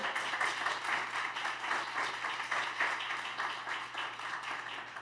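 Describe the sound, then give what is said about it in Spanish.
An audience bursts into sustained applause for God, a dense crackle of many hands clapping steadily for several seconds at a fairly even loudness, with no voices standing out. “Gloria a Dios, un aplauso para Él.”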